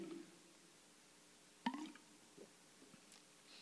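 Someone drinking water during a church service: a soft wet gulp midway, then a few faint swallows and mouth clicks against a quiet, hushed background with no talking.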